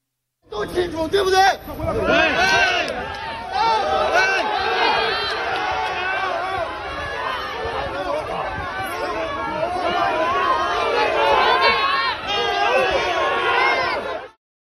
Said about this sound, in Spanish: Por momentos se escucharon gritos que pedían la renuncia de Xi Jinping